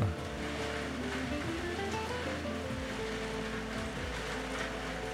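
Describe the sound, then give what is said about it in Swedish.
Heavy rain pours down steadily outside, a dense, continuous rushing hiss that stays even throughout with no voices over it. “Oj, nu regnar det verkligen här utanför.”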